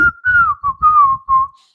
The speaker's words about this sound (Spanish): Vaya, incluso hasta iba yo a decir: Voy a poner el silbido, güey.